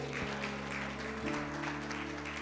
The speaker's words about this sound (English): A round of applause. Amen.